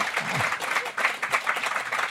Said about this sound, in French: On peut applaudir euh, Pierre Guénard. C'est un bon lecteur.